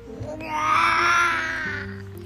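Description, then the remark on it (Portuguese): A child's voice imitates a lion's roar while reading the picture book O Leãozinho, answering how the lion goes: one long, strained, rising-and-falling growl that swells loudly and fades after about a second and a half, over a faint steady hum. “Como o leão faz?”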